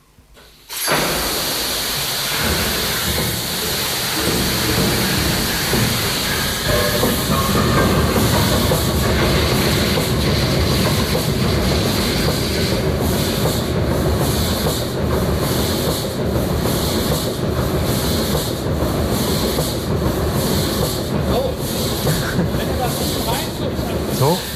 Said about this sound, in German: Das Besondere hier war, ja. dass äh, während der Motor hier langsam läuft, war eine Wartungsklappe auf.